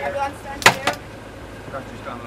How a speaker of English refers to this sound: One ambulance man is lowering the ramp for the ambulance trolley.